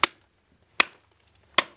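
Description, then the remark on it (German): Three sharp, evenly spaced strikes of a replica Bronze Age bronze pick on a beech-wood haft chipping rock salt crystals from a thick brown-orange salt layer on a chamber wall inside a tunnel into a salt mountain, each a bright, crisp crack with a brief ringing tail, with faint crumbling bits between. “schlägt ein paar Salzkristalle heraus mit einem nachgebauten Werkzeug aus der Bronzezeit.”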